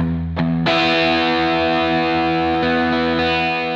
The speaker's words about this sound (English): you can play these open chords, uh, especially that E open chord, which is just like E's and B's and E's. It's kind of a huge power chord, and just start with a really big sound.